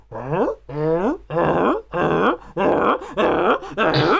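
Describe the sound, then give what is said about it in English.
A voice imitates the footsteps of prison guards walking down a hallway, as if heard from really far away, with seven loud, evenly spaced groaning vocal bursts, each about half a second long, in a steady plodding rhythm. “it's just it's so good because like the characters the gu- the prison guards are walking down the hallway and obviously each the, the, the footsteps make a noise and it's just all it is just like from really far away like a”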